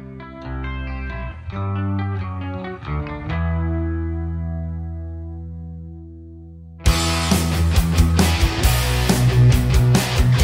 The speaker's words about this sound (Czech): Takže jsme u Hevíku někde a hnedka na začátku, jak tam ty kytary hrajou, má to strašně moc basů na tom palmutingu. Úplně mi to drtí uši. ta basa hodně duní spod ve spodku.